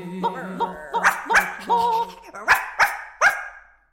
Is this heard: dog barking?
yes